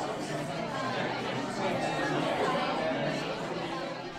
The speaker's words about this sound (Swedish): Ja, så här låter det när ungefär 60 forskare från 27 unga akademier från hela världen utbyter idéer med varandra. Tidningen Curie har varit på det andra globala mötet av unga akademier i Stockholm och rapporterar den här gången i ljudform.